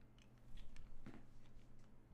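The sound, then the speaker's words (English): Soft wet chewing after a bite into a chocolate-filled Tootsie Roll candy, a string of faint sticky mouth clicks repeating steadily over a low hum, with no talking. “Literally squirts out when, when you chew into it.”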